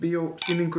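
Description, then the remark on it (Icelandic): Glasses clink together once in a toast, a bright, ringing chime cutting through a man's speech, which continues before and after the clink. “Við erum búin að skála, þú varst ennþá að þylja skáluna með”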